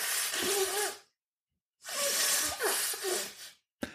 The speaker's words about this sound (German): weil ich muss ja die Nase putzen. Es tut mir furchtbar leid.